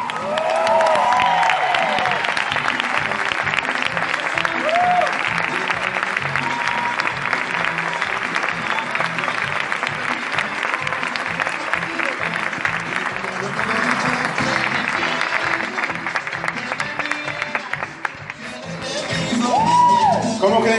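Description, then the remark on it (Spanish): A crowd in Medellín applauds loudly and steadily for about twenty seconds, welcoming a speaker, with cheers, whoops and shouts rising over the dense clapping, dipping briefly near the end before swelling again. “Quiero que me ayuden a recibir con un muy fuerte aplauso al diamante premier”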